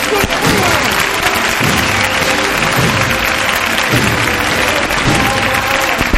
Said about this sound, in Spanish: El aplauso del público mientras los anderos alivian este ritmo tan, particular de esta carrera, por así decirlo, de, de la Virgen de la Esperanza durante su itinerario y durante el recorrido oficial.